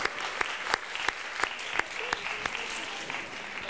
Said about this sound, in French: j'en veux des applaudissements pour elle parce qu'elle, elle est incroyable.